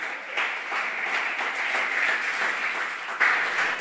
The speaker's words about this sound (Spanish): Dale un aplauso fuerte, aleluya.